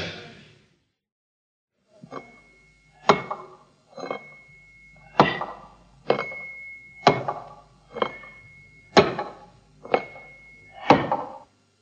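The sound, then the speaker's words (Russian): A spoon knocks repeatedly against a bowl or pot while someone eats, about ten sharp clinks at a roughly steady pace, some with a faint ringing tone, with no one speaking. “Ты напрасно ложкой стучишь, товарищ переводчик.”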